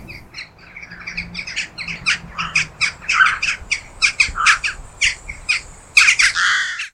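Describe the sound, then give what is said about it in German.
A flock of jackdaws calling, a rapid, overlapping stream of sharp, high-pitched "kjek" notes from several birds at once, brighter than the deep caw of crows, loud, with no voices present. “Also eben im Gegensatz zu den Krähen, die ja so ein eher tiefes Kra äußern, ist der Ruf der Dohlen viel heller. Er wird als ein Kjek beschrieben und es klingt ungefähr so.”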